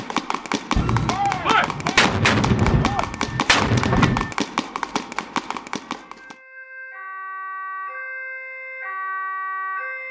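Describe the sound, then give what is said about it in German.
Heavy gunfire given as covering fire rattles for about six seconds, rapid loud shots mixed with deep booming blasts, then stops abruptly and gives way to a bright, repeating electronic jingle of steady tones. “Schnell, gehen Sie. Ich gebe Ihnen Feuerschutz.”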